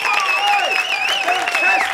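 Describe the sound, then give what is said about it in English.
Steady audience applause, dense and loud for the whole two seconds, with a wavering high-pitched tone, like cheering or whistling, riding over the clapping. “Clap, clap till your hands are sore. Clap till your heart breaks.”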